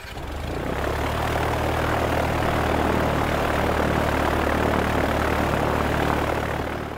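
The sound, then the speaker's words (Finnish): A large 18-cylinder Wright Duplex Cyclone radial aircraft engine catches and builds into a steady, loud, throbbing roar with a deep propeller drone that holds for several seconds, with no voices. “Nuo moottorit olivat muuten 18-sylinterisiä tähtimoottoreita nimeltään Wright Duplex Cyclone.”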